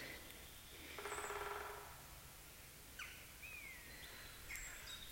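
A common buzzard gives faint, drawn-out mewing calls from far off in an old forest on the Kruisberg in Doetinchem, on a sunny, cool day under a clear blue sky. A couple of thin descending whistles sound over a quiet open-air background, with a brief harsher bird call earlier and no talking.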